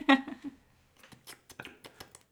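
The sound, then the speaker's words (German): A dog named Sophie laps and slurps up water, a run of short, wet, irregular smacks that follow a brief burst of voiced laughter at the start. “Guck mal kurz, mal hört Sophie schlabbern.”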